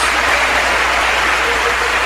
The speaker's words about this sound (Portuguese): E olha, vamos aplaudir, igreja. Olha quanta gente entregando a vida para Jesus.